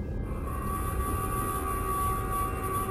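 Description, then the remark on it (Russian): A steady, sustained alarm siren blares over a heavy low mechanical rumble in the cargo bay of an intergalactic transit station, signalling that all living organisms must leave the bay, holding one unwavering tone for the whole stretch, loud with no voices. “Заревела сирена, сигнализирующая, что все живые организмы должны покинуть отсек.”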